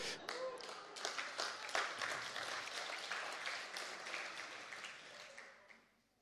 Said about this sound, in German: In meinem Skript steht jetzt, die Gemeinde jubelt, klatscht, tanzt auf den Stühlen.